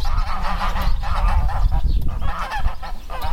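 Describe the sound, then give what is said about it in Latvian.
A flock of geese, including white crested Italian geese, honks loudly and continuously in a farmyard, overlapping calls filling the air with a busy, raucous clamor and low rumbling background noise. “Pagalmā mūs sagaida zosis.”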